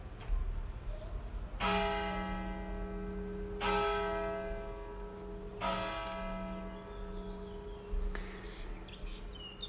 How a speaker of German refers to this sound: Doch nun lasst uns auf die Glocken hören.